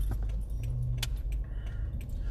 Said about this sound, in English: people are driving crazy out here. But then again, I am in the car